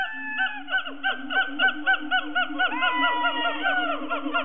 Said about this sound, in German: Gibbons singen in Strophen, die sich wiederholen. Manche Gibbon-Arten singen sogar im Chor, wie die Siamangs im äußersten Süden Thailands und auf Sumatra.